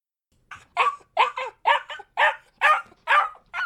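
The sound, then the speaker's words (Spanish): A nervous dog barks rapidly and insistently, about eight sharp, high-pitched barks in a quick, steady rhythm, loud, with no voices. “Hombre, este perro está bastante nervioso.”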